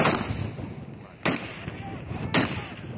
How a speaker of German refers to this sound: Plötzlich fallen Schüsse.